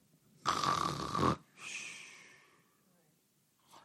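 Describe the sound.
A person makes a loud, exaggerated snoring sound with the voice: a harsh rattling inhale followed by a softer, airy exhale, alone with no talking.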